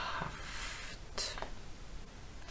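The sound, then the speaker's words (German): Soft, scratchy strokes of a pen moving across paper as someone writes the word Nachbarschaft, one longer stretch of writing followed by a brief second burst, fairly quiet with no talking. “Schreibt ja mal das Wort Nachbarschaft auf. Ja, Sekunde, der Stift schreibt nicht.”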